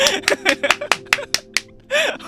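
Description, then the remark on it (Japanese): About eight sharp, crisp claps in a quick, slightly uneven rhythm, followed by a longer, softer burst of noise, with a faint voice murmuring underneath. “何を拍手しとんねやらせといて”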